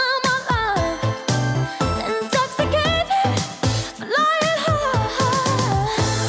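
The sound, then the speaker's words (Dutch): A woman sings soaring high notes in a light, airy head voice, holding wavering vibrato tones over steady musical accompaniment with a low bass pulse. “Flying high. Pure kopstem daar. Prachtig.”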